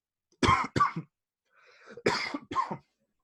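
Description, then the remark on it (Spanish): A loud coughing fit: two harsh coughs, a brief wheezy breath, then two more forceful coughs in quick succession, with no talking. “La gente va a pensar que tengo corona.”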